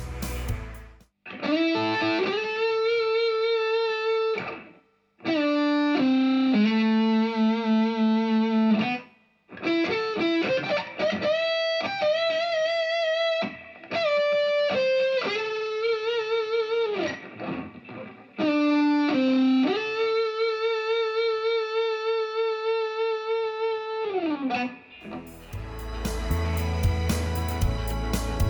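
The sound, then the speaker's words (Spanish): An electric guitar with a distorted, singing tone plays long sustained notes joined by slides and bends, with brief gaps between phrases, heard alone with no voices; recorded with four microphones, of which only the mid-side (MS) stereo room microphone placed in front is heard. “Vamos a oír ahora una guitarra grabada”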